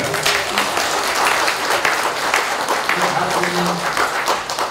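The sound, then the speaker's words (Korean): An audience breaks into steady applause, a dense wash of many hands clapping at once that holds at an even, fairly loud level for about five seconds, with faint voices mixed underneath. “일단 박수 한번 쳐드릴게요.”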